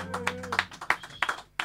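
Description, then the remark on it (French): Concert audience applause for the evening's accompanist, in loose, uneven bursts of clapping, moderately loud, with a low sustained hum under the first half-second that fades out. No one speaks. “que vous pouvez applaudir très fort.”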